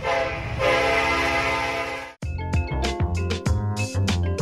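A loud, sustained multi-tone train horn blares for about two seconds, then cuts off into a run of rhythmic clanks and rumbling as the train rolls past. No voices.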